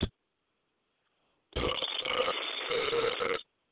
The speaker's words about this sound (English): because I can burp like a champ.